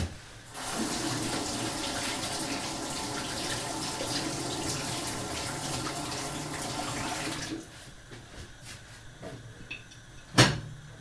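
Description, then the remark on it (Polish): A tap gushes in a steady, loud hiss for about seven seconds while celery is rinsed under it, then shuts off, leaving quiet handling sounds and one sharp knock near the end. “Ten akurat jest gotowy, więc mogę go sobie opłukać.”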